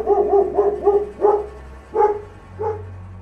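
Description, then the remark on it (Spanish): A dog barks in a quick burst of four barks, then three more spaced out, loud over a low background hum. “Desde entonces se dice que si un perro ladra tarde en la noche,”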